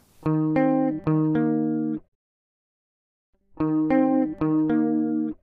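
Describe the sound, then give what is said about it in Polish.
An Epiphone Casino electric guitar with a shimmering chorus effect plays sustained two-note chords in two short phrases separated by a brief silence; clear, with no voices. “Spokojnie, włączymy chorus i nie będzie tego słychać.”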